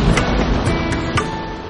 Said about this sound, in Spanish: La lluvia se enfurecía y oscurecía el campo